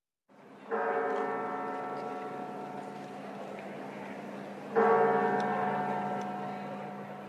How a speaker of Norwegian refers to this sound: Kirkeklokkene over katedralen i Santiago de Compostela kimer for ett minutts stillhet. Katedralen der levningene etter apostelen Jakob ligger, skal snart kalle inn til den første begravelsen etter togulykken.